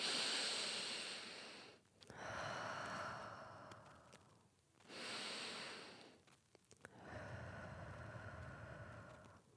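Four slow, deep breaths drawn in and let out as a short breathing exercise, each a broad airy rush lasting about two seconds with brief pauses between, fairly loud with no talking.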